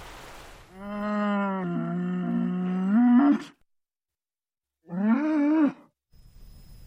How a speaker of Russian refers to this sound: но вдруг откуда-то донеслось мычание коровы.